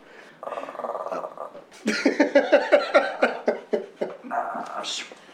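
A dog named Café makes strange, eerie vocal noises: a drawn-out whining moan, then a rapid rhythmic string of about ten harsh yelping gasps, ending in another wavering whine.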